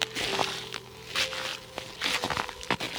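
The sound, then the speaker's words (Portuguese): Squelching footsteps through wet mud, several soft, irregular steps with sloppy, crunchy bursts and a faint steady hum underneath; no one speaks. “Um som de algo úmido. Parece que você está andando em algo úmido.”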